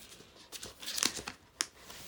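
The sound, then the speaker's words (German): Paper packaging inside a just-opened box rustles and crinkles as it is unwrapped, with a string of quick, uneven crackles and a sharp crisp burst near the end. “Hier begegnet uns erstmal äh, ein bisschen Papier”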